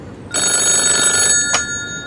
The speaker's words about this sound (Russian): Анна, тебе звонят.